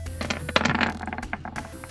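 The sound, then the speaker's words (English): Dice are rolled for an attack in a game, clattering across a hard tabletop in a quick burst of sharp clicks and rattles, tumbling and bouncing before settling, fairly loud with no voices. “the dice are talking.”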